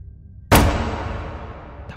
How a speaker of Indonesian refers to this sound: Saat tangannya meraih keran, dia kejutkan dengan pintu bilik toilet paling ujung yang tertutup dengan sangat keras.